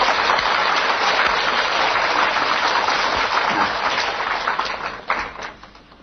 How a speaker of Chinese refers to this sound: 那我们学学单田芳好不好？我们给点掌声好不好？